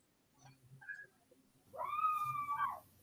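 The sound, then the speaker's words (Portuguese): A single drawn-out cat yowl, loud, rising then holding a wavering cry for about a second before fading, preceded by faint low background murmurs. “Eita, um gato gritando aqui.”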